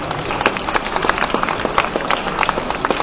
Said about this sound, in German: Vielen Dank und nochmal einen Applaus.